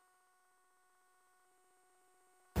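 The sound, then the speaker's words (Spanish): A Securitas Direct alarm being disconnected: a faint, steady electronic tone hums with a slight pulsing warble for over two seconds, then cuts off with a sudden loud burst at the very end. “Su alarma de Securitas Direct ha sido desconectada.”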